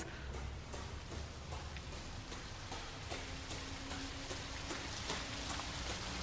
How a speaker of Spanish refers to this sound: Y si querés ir a la cascada, no la vas a ver porque ahí está todo muy oscuro, pero tenés que seguir el ruido del agua cayendo.